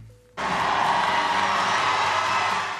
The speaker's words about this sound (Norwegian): Jubelen står i taket på Obama-tilhengernes store valgvake i Chicago. Deres mann får fire nye år.